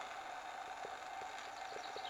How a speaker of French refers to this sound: Les réseaux électriques. Mais tu sais, quand on passe en kayak après euh, près de la roche du diable, au-dessus, il y a des câbles électriques, qui font du bruit.